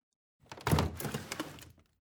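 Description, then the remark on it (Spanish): A fairly loud wooden scrape and rumble of kitchen pantry drawers sliding open, with a dull knock and a faint rattle of contents, lasting just over a second with no voices. “Fui a la cocina y abrí los cajones de la despensa.”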